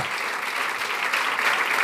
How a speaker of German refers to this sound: Vielen Dank. Ein großer Applaus